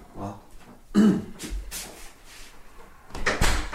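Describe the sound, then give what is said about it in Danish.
A door swings shut as someone comes in and closes it, with a couple of dull knocks and rattles amid shuffling movement and a brief throat-like sound, ending with a firmer thud. “Kom ind og luk døren.”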